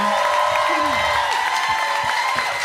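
An audience applauds and cheers steadily for the full few seconds, a dense wash of clapping with brief whoops and shouts rising above it.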